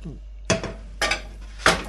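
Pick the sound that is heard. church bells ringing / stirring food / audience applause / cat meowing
stirring food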